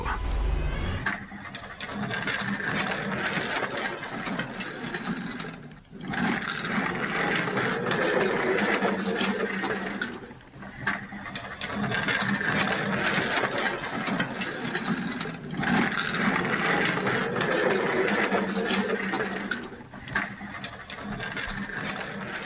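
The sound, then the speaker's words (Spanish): A wheelchair rolls steadily with a continuous mechanical whirring and rattling, pausing briefly every few seconds before moving on again, fairly loud, with no voices. “Estamos escuchando eh, una silla de ruedas porque nuestra historia sonora de hoy tiene que ver con fidelidad, con un amigo, con un perro.”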